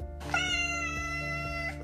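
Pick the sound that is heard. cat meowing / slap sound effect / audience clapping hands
cat meowing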